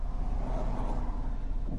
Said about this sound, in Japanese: 僕はちょっと協力会社さんの方にですね、今、向かっている最中で、えー、そしてこの、車の中で録音をしている最中でございます。